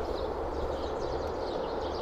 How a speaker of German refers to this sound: Der Zug.